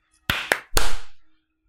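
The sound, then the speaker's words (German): Three sharp hand claps in quick succession, meant as a synchronized clap to align separate audio recordings, but slightly out of step rather than in unison; the final clap is the loudest and rings out briefly before silence. No voices. “Ja, also, äh, wir müssen noch kurz synchron klatschen.”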